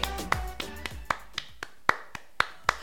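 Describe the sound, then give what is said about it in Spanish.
Hand clapping, about ten sharp claps at a loose, slightly uneven pace, sparse and moderately loud, with no one speaking over them. “Es más, vamos a aplaudir, apláudale, apláudale.”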